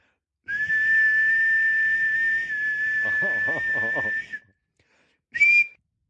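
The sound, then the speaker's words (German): A referee's whistle blows one long, shrill blast for about four seconds to stop play at half-time in a football match, then a short sharp toot after a brief pause, loud, with faint murmuring voices underneath. “Pfeifen wir mal kurzzeitig ab, äh, bis später.”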